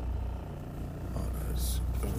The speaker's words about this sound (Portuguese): Agora estou aqui a fazer a manobra para tirar o carro de casa e já vai, já vai, ok.